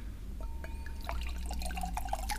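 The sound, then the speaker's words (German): Picudo rosé wine is poured into a glass: a steady, moderately loud gurgling trickle with bright bubbly splashes and small rising glugs, no voices over it. “Dann schenke ich mal ein.”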